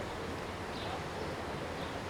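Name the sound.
river water flowing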